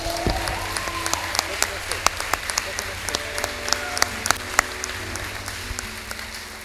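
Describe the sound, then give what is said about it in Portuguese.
An audience applauds with steady, scattered claps forming a continuous patter, a few sharper claps standing out, while faint voices murmur underneath. “tentou aplaudir, ninguém aplaudiu com ela, eu vou aplaudir com ela, tá bom?”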